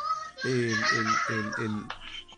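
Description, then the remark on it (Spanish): A four-year-old child in Colombia cries and shouts in the background in four quick, rhythmic bursts, fairly loud, over a steady hiss before trailing off. “¿quién, está llorando allá atrás?”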